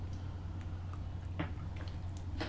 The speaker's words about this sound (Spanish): ahora sí voy a coger la cucharita para revolver un café que se ha refrescado un poco, pero sigue caliente, amargo, sin una gota de azúcar, que despertarse informativamente con un buen café amargo y siempre, siempre necesario.